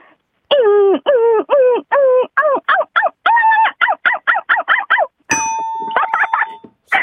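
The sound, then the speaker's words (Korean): A voice imitates Huindungi, a white puppy, whining as it strains to lose weight: a fast string of high, nasal yelps and whimpers, each dipping in pitch. The cries are loud and end in a squeaky, strained whine. “강아지가 어, 살을 빼려고 빙빙대는 소리 들어볼게요.”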